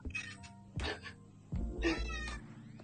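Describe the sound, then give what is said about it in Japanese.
A cat meows loudly three times in a row, each drawn-out, wavering cry clear, with brief pauses between, the last call stretching longest. “ああ、泣いてますね。泣いてますね。”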